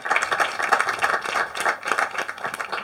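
An audience applauds the panelists at the end of a panel discussion, a dense, steady patter of many hands clapping at once that keeps going at an even loudness, with no voices over it.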